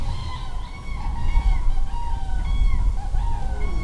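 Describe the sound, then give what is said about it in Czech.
Common cranes give overlapping, drawn-out trumpeting calls during a fight with a white-tailed eagle on a small island in one of the Třeboň fishponds, over a steady low outdoor rumble like wind. “Právě posloucháte souboj jeřábů s Orlem Mořským na ostrůvku jednoho z třeboňských rybníků”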